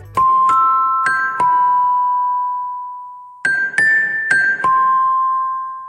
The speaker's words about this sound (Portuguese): mas eu gosto dele porque ele propõe uma coisa que é o terror. E eu não digo o terror pela, pelas aparições no filme, não. É o toque de celular maldito.